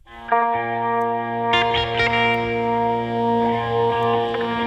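A music track plays with sustained, layered tones and strong effects, the sound swelling as more parts enter, with echoing, chorused textures and a steady loud level and no voices.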